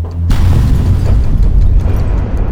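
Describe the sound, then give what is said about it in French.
A deafening explosion that shatters windows, shakes walls and brings down a ceiling bursts in suddenly after a brief quiet moment, followed by a heavy, rumbling low-frequency roar that sustains loudly to the end, with no voices. “le silence est rompu par une déflagration assourdissante.”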